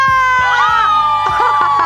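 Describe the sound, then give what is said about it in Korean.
A live open-studio audience yells and cheers loudly together, answering the radio host's call to shout, a dense burst of overlapping shouts and whoops with rhythmic thumping underneath, filling the whole two seconds. “오픈 스튜디오 소리 질러!”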